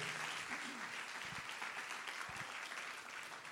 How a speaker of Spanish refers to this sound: Vamos a dar un aplauso al Señor si usted cree que hoy es el día. If you think today is the day.